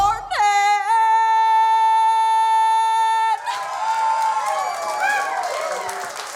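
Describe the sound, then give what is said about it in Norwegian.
A sustained musical chord rings out and cuts off, giving way to a live concert crowd in California clapping and cheering loudly, with scattered whoops rising above the steady wash of applause. “Oh, hør og fornøyde de er. Det er jo ikke grenser.”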